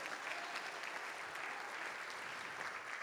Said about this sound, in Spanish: Dele ese aplauso a él, hermano.